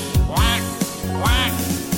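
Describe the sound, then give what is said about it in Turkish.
Two nasal, duck-like quacks made by a human voice imitating farm ducks in a song, spaced about a second apart, fairly loud over a steady musical backing. “Çiftliğinde ördekleri var”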